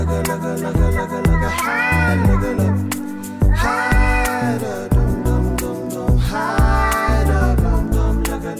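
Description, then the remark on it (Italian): Cat meows sampled by a person in a studio with a small looping mixer and headphones, chopped and looped over a steady beat as tracks are gradually layered, the pitched mewing repeating in rising and falling phrases throughout a loud, dense music track. “Quindi campiona il eh, gatto, il, il gatto e pian pianino dal cam- primo campionamento aggiunge tracce.”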